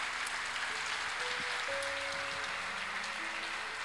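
An audience claps steadily, a dense wash of many hands applauding together, with faint sustained organ or keyboard tones underneath.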